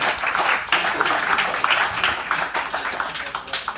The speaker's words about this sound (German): Ich kann aber euren Applaus noch nicht hören. Ein bisschen mehr geht dann noch, denke ich.